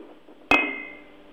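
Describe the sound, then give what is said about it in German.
A single bright clink of glasses touching in a toast, sharp, with a clear ringing tone that lingers and fades over a low background hum. “Lass uns nochmal anstoßen.”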